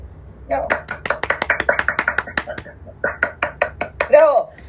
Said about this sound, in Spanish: Aplausos.